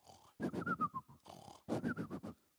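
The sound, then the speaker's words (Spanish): A person imitates snoring to portray the boy Samuel asleep, with two loud, rattling snores, each a quick run of pig-like snorting pulses. A breathy, hissing inhale sits between them, and no one speaks. “Y cuando estaba el muchachito muy a gusto, tranquilo, durmiendo, roncando,”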